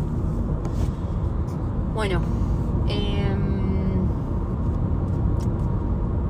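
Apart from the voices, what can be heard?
car driving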